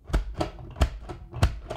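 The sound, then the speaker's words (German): A series of sharp mechanical clicks and clacks, about six in under two seconds, in an uneven rhythm as a plastic pop-up drinking game toy is pumped three times after a die roll, with no talking. “Der Würfel gibt es drei, also man kann einmal, zweimal oder dreimal pumpen anscheinend.”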